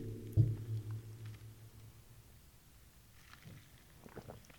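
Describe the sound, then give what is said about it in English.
Low, muffled gulping and swallowing as someone takes a big drink of Copperhead, with a soft thump at the start, followed by quiet, faint wet clicks. No one speaks. “Taking a big gulp right there. Big gulp of the copperhead.”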